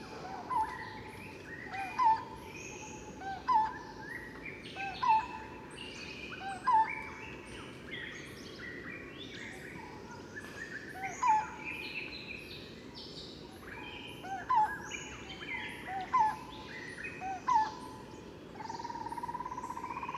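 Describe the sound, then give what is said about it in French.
Barbet calls repeat in a steady rhythm, short bright notes at regular intervals over a dense, continuous background of insect and bird chatter. “dont les barbus.”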